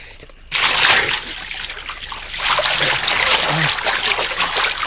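After a brief quiet start, water splashes and sloshes loudly, a continuous churning and dripping as a torn jacket with red reflective stripes is hauled out of the water, with trickling runoff continuing to the end.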